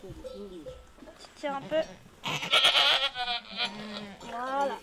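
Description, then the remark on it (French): A goat giving birth bleats repeatedly, its wavering, nasal cries rising and falling in several drawn-out calls, with a louder, harsher bleat in the middle. “jusqu'au jour où, en reportage, j'ai assisté au vélage d'une chèvre.”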